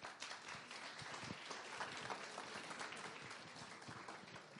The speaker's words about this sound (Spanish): Bienvenidos. Lo recibimos con un fuerte aplauso, por favor.